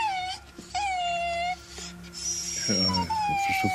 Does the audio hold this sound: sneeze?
no